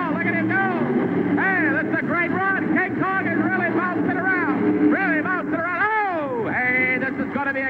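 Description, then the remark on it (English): A loud engine roars steadily throughout, the truck King Kong's motor revving continuously during a qualifying run on a track, jumping into the air over cars, while a man talks excitedly over the noise. “You see, he kind of throws the truck up into the air over the cars, and the difference in space between that second hill and the second set of cars, you can really see how tight it is”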